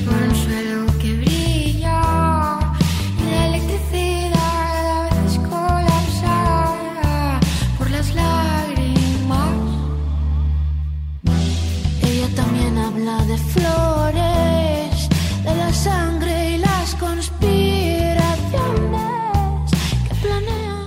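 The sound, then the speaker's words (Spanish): A loud, upbeat pop song plays on the radio continuously, with a steady beat, bass and a melodic lead line, briefly dropping out for a moment midway before resuming at full volume. “hoy el baile suena así de bien, suena este temazo”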